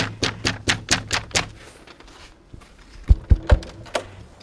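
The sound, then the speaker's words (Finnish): A quick run of six sharp knocks or taps, then a pause before a few heavy clunks and rattles as a special planner unlatches and pulls open the door of the provincial government house designed by Engel. No one speaks. “erikoissuunnittelija, avas, avas oven.”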